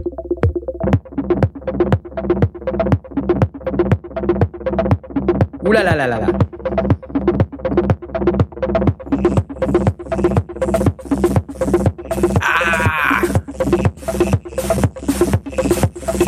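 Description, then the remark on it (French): A looping synthesizer pattern from a Monomachine, run through an analog distortion processor, pulses in a steady, fast rhythm, gritty and harmonically dense, loud, with a brief voice exclaiming over it. “À moi, tout ce qui est euh, distorsion,”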